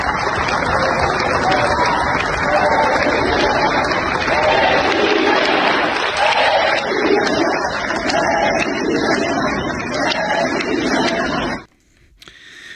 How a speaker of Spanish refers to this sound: Pues ahí estamos escuchando parte de los gritos de presidenta, presidente, que donde quiera que se mueven Claudia Sheinbaum Adán Augusto López Marcelo Ebrar